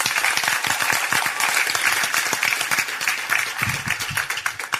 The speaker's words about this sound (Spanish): porque no le das un aplauso a Dios por eso?